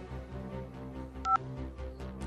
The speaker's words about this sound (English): But you're going to live because you just had to dial that one digit.